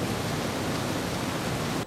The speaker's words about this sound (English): Oh, look, it's the ocean!